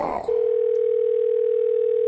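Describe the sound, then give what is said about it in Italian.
A telephone line tone on a call to an electrician: a single steady, unbroken pitched beep starts right after a brief snatch of voice and holds loud and clear until the end. “Terza telefonata all'elettricista.”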